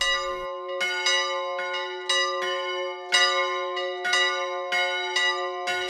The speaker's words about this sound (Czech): Svatební zvony se na kostelní věži v Hostiném rozezněly